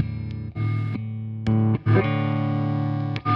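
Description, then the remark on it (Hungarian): Overdriven electric guitar through a Tube Screamer pedal, sustained chords with a warm, mildly distorted tone, a few short gaps and pick attacks between them, no talking. “Tehát önmagában, ha bekapcsolom,”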